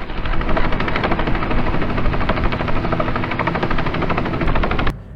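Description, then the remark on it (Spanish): A helicopter flying over Medellín, Colombia, roars loud, its rotor blades chopping in a fast, steady rhythm over a heavy engine drone, then the sound cuts off abruptly near the end. “O vuela en helicóptero por Medellín en compañía de las personas que más quieres en una fecha importante o en una ruta urbana privada”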